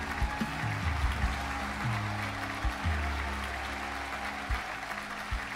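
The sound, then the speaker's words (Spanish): An audience applauds steadily, a dense wash of clapping that holds for several seconds, while low sustained musical notes shift beneath it. No one speaks. “Un aplauso para él.”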